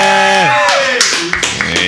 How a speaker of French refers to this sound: On ne sature pas les micros, s'il vous plaît. Exactement, on évite de saturer les micros.